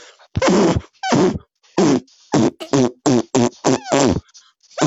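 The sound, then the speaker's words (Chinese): A rapid string of about nine or ten loud, buzzy farts, each a short pitched blast with brief pauses between, some rising or wavering in tone, with no talking. “这这现在放屁吧， 啊！”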